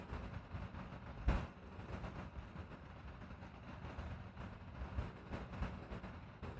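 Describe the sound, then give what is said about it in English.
A deep, low rumbling hum with a faint pulsing quality drones steadily and quietly, as if recorded from far away, with a couple of soft thumps rising briefly above it. “You hear the hum in the background? So this is like from far away being recorded. There's a hum.”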